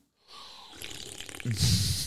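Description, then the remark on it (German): Someone slurps an energy drink: a wet, hissy sipping that grows into a louder, gurgling pull of liquid toward the end, with no talking. “ich schlürf direkt mal mit.”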